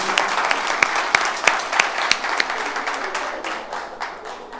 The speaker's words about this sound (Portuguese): Pronto. Pode dar uma, uma salva de palmas para Jesus.